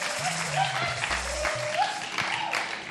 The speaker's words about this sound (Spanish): El aplauso radiofónico. Me encanta que tengan tantos fans, por favor.